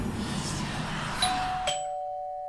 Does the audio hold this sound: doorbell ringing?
yes